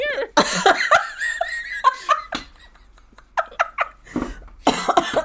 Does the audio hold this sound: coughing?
yes